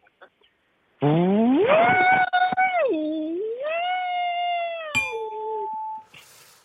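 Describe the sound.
A voice imitates a vacuum cleaner that gets stuck on an obstacle while cleaning and sounds as if gasping for breath: one loud, sustained whining hum that swoops up, wavers, dips and rises again for about five seconds, with a click near the end.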